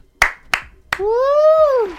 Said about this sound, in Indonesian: Tepuk tangan dulu dong buat kita.